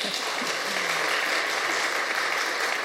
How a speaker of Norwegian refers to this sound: Fortjener en applaus, det.